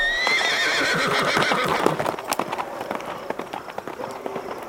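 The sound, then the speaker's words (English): A horse lets out a loud, high whinny, then its hooves clatter in a quick, steady galloping rhythm that grows a little quieter as it is ridden off. “You just take that horse and you ride it to freedom!”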